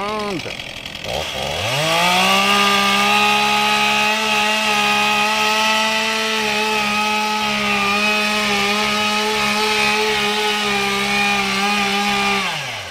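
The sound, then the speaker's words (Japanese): A chainsaw revs up, then roars at a steady, loud pitch for a long stretch as it cuts into a 70-year-old tree in a forest, its motor sound echoing through the woods. The engine drone stays continuous until it eases off at the end. “森の中に響くモーター音ってなんかいいっすねなんだろうなこのやっぱモーター音ってなんか燃えるよねワンワンって”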